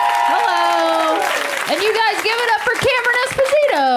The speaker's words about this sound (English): Put your hands together. Get ready to put your hands together. Put your hands together.